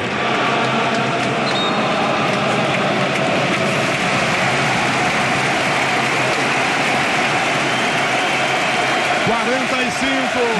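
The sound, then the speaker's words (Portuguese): A football stadium crowd in Lyon, at a match of the Portugal national team, roars in a loud, unbroken wash of thousands of voices, holding steady throughout with a dense, rumbling texture and no pauses. “Ouçamos a sinfonia do estádio em Lyon.”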